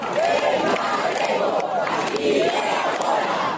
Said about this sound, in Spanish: Y aquí detrás están los obreros. Con los gritos por la defensa del uso del gallego.